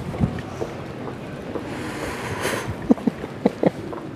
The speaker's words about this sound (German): Wir hören so lange der Stadt zu